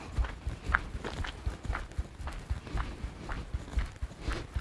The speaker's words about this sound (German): Wir packen den Koffer und gehen als erstes 20 Schritte auf den Zehenspitzen, ohne möglichst das Gangbild zu verändern.